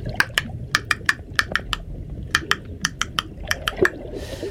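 Sperm whale coda clicks trade back and forth underwater between two whales during physical contact: sharp, dry clicks in quick rhythmic bursts, with short pauses between groups, over a low murky rumble of ocean noise.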